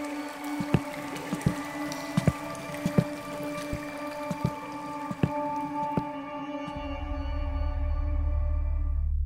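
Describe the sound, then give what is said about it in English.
Someone wading across an underground cave stream called the River Styx, heading into an inner temple, with a series of sharp splashes and knocks over a steady echoing hum, then a deep rushing rumble swelling up toward the end. “So we are about to cross over the River Styx and into the inner temple.”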